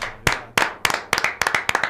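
Steady hand clapping in a brisk, fairly even rhythm, about five sharp claps per second, some landing in quick pairs, moderately loud with no voices.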